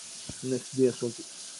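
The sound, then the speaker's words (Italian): Water runs steadily with a soft, continuous hiss the whole time, while a voice briefly speaks over it for a few syllables. “sto rumore? Sono eh. con l'acqua.”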